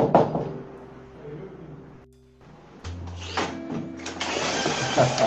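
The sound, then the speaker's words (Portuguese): Someone punches a code into the electronic lock of a home's door: short tonal beeps and clicks, a brief pause, then a loud mechanical whir and rattling clunks as the lock works. The person entering the code is the resident's brother. “É porque a minha, a minha porta ela tem uma senha e eu fiquei assustado porque tinha uma pessoa digitando a senha da minha porta.”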